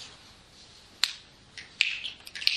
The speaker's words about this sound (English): and feel the sensation and the sound. Notice, we've got two things going here. The mind goes, no, no, there's just the one. we snap our fingers. But if you listen, it's a sound. And there's also the sensations.